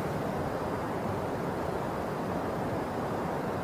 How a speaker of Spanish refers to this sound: Allá está el rumor del río, acá luego, luego, a unos pocos metros, hay un rumor, con, está el sonido del río. Sean conscientes de él, pongan su conciencia, acuérdense, darse cuenta. Entonces, dense cuenta del río